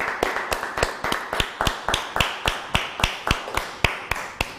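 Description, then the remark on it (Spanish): Steady, evenly spaced claps, roughly four per second, ring out crisply for several seconds in a regular rhythm, with no one talking over them. “Sale un fuerte aplauso a Victoriana.”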